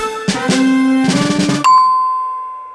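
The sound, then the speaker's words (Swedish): A two-tone doorbell chime rings out clearly, a bright ding followed by a lower dong, with the final note lingering and slowly fading into quiet. “En till sån aktivitet som jag kom på som vi höll på med, det var det här man sprang och busring på dörrar.”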